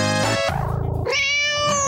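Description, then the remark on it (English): A cat meows loudly, two drawn-out, high-pitched cries separated by a short, low, throaty sound, with no talking over it. “Kitty, kitty, kitty.”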